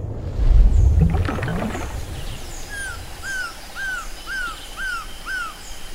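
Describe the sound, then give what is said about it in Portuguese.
A golden surucuá trogon perched at the edge of a river in a forest calls in a steady series of six clear, evenly spaced notes over faint chirps from other birds, after a brief low watery rumble at the start. “Agora, um pássaro colorido pousa na beira do rio, um surucuá dourado.”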